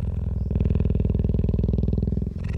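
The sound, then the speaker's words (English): A female cheetah purring, recorded in the middle of the day with a microphone on a pole lowered to within about three yards of her: a loud, deep, rapidly pulsing rumble that throbs steadily and without pause through the whole clip, with a brief dip near the end. No voices. “And when it got within about well, three yards of this, this cheetah, I could see her chest rising and falling, but I could also hear she was purring just the same as any cat.”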